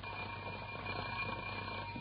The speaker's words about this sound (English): See? Alarm clock.